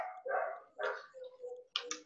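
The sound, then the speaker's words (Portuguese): A dog being walked past by a neighbour barks several times in quick, uneven succession, sharp bursts with a short yelping edge, clear with no voices over it. “O vizinho está passando com um cachorro. É, Estão se manifestando, eles querem participar.”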